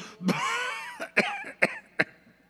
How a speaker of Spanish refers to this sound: Por cierto que estoy tosiendo de veras, cuidado.